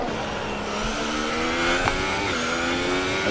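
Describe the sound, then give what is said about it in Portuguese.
Gustavo's race car drones loudly and steadily with a high, buzzing whine as it completes another lap with four laps left, its pitch shifting slightly as it carries along the track. No voices, just continuous motor noise. “Agora o Gustavo vem completar mais uma volta, faltando aí quatro voltas para o final.”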